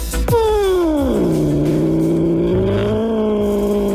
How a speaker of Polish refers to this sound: Myślałem, że jakiś motorek odpalił.